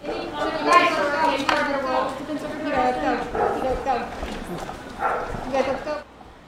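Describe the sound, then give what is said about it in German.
Two dogs bark intermittently in the background while the new president holds a press appearance, beneath a steady stream of people talking, with a busy outdoor crowd feel throughout. “Während der neue Präsident seinen Pressetermin absolviert, bellt im Hintergrund ein Hund bzw. zwei Hunde.”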